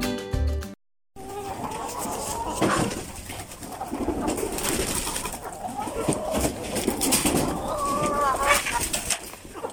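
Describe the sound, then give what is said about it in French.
Hens, just let out, cluck and murmur over one another in a steady, overlapping chatter, with scattered higher squawks rising above, on a cloudy, not very warm day. It follows a brief musical tone and a short silence at the start. “Bon, c'est jour de rentrée euh, je viens d'ouvrir aux poules Il fait euh, pas très chaud, il y a des nuages, mais je crois pas qu'ils aient prévu de la pluie.”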